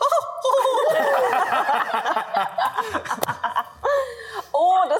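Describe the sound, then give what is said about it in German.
A voice imitates a turkey's soft gobbling laugh, a quick burbling run of warbled notes, then a couple of short gobble-like bursts near the end, fairly loud. “Aber ihr hört so, ihr hört so ein leises Lachen von so einem Truthahn, der gerade so ein äh, Skript gerade gelesen hat.”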